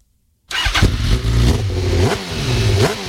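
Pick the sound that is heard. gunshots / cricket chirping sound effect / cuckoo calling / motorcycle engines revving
motorcycle engines revving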